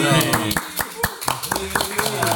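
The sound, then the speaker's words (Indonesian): Hands clap in a steady, fairly quick rhythm, about a dozen sharp, bright claps over two seconds, with faint voices murmuring underneath, after the last question of The Barbar edition 100. “Tepuk tangan.”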